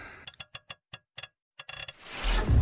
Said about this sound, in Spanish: Mi corazón latía tan rápido y tan fuerte que apenas podía escuchar los clics mientras giraba el dial de la caja fuerte. Solo un número más y la había abierto.